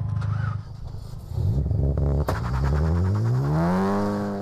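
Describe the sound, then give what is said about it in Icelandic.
A loud, heavily modified car engine revs hard during a burnout at a town car-days motorsport event, its rough growl rising steadily in pitch with a sharp crackle partway through, continuous throughout. “Malandi útúrkíttuð kvikindi í börnáti”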